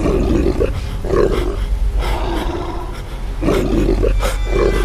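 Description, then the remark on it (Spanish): A monstrous beast lets out loud, drawn-out, horrible bleating roars in repeated surges as it lunges at a man backed against a stone cross, over a deep, continuous rumble like rolling thunder. The sound is overpowering, with no voices. “La bestia baló horrorosamente, confundiendo su sonido con el estruendo de un rayo, y se abalanzó sobre él.”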